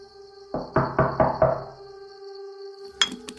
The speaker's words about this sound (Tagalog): Buksan mo yung pinto! Mabilis kong binuksan ang pintuan. Pero walang tao sa labas. Sinilip kong maigi kung may tao sa paligid. Hinanap ko ang taong kumatok hanggang sa makalabas ako ng gate.